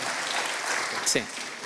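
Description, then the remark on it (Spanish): A church audience gives a loud round of applause to the Lord, a dense, steady wash of clapping that holds at an even level throughout, with a brief voice breaking through near the middle. “Dele un aplauso fuerte al Señor, mi hermano.”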